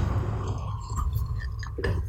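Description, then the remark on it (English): A quiet sip of coffee from a mug: soft slurping and swallowing mouth sounds, with a few small taps and clinks over a low rumble, and no talking. “Let me take a sip of my delicious coffee for women.”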